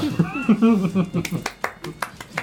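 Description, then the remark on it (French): A voice speaks briefly, then a short round of applause follows: about seven sharp, evenly spaced hand claps in a steady rhythm, moderately loud and standing mostly on their own. “J'ai des applaudissements.”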